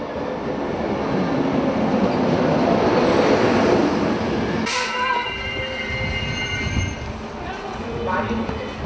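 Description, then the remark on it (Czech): A train rumbles loudly, then a sharp clunk gives way to thin, high-pitched brake squeals as it slows to a stop at a platform in Most, Czech Republic, where scouts wait to pass on the Bethlehem Light, with faint voices in the background. “Uděluje poslední pokyny před zastavením vlaku vedoucí a jeden ze zakladatelů mosteckých skautů”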